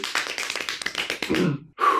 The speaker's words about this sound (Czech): To tleskání mi taky dalo zabrat.